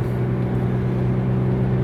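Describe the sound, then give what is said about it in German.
Steady, low droning rumble inside a car while driving, recorded with a device fixed in a homemade microphone holder in the car, with a constant engine hum and no voices, holding an even level throughout. “Ich rede einfach beim Autofahren und dann”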